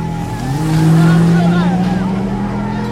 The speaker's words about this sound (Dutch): Ze worden opgevangen door een auto die voor ze uit gaat rijden. Uit de auto hangen vlaggen en schreeuwende en zingende mensen die weinig verbloemen waar hun loyaliteit ligt.